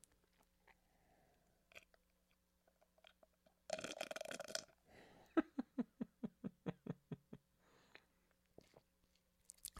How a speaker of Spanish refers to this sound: Perdón, racita que está escuchando, pero es que estoy tomando este lío. Bueno, es un batido, es un licuado, pero no, o sea, no tiene leche, simplemente tiene agua. Pero es que suena bien raro y como tiene hielos, se atora todo el grumo